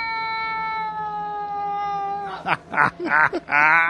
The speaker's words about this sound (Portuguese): De repente o gato do miote vai soltar esse miado aí, ó.